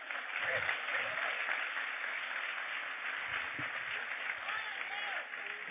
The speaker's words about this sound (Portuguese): Vamos aplaudir o Senhor pela vida dele.